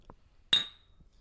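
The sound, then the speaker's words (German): A single bright clink as two drink bottles knock together in a toast, the glassy ring lingering briefly before fading into quiet. “Äh Stoß dir mal an.”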